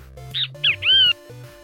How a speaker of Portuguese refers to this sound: Funcionou, bem te vi tá bom. Bem vi legal.